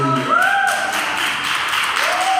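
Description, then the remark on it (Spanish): An audience claps steadily for a couple of seconds, a dense, even wash of many hands, with a few voices calling out over the applause. “Eso merece unas palmas al que”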